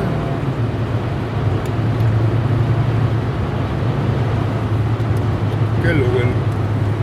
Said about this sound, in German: mal kurz gucken, dass ich hier noch den LKW überholt kriege.